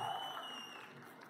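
An audience claps in a steady, dense burst of applause for a song, a broad noisy patter that stays fairly loud throughout the short moment.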